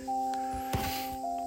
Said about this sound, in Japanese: なんか BGM いいでしょこれねパッとパッとね BGM のダウンロードしたとこからパッと見たらねプラネタリウムってあったんだよね